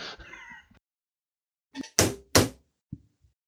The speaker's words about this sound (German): Mal schnell auf Holz klopfen, dass das auch so bleibt.